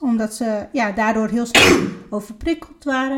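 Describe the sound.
A single sharp, explosive sneeze bursts out in the middle of someone speaking Dutch, loud and noisy, and then the talking resumes right after.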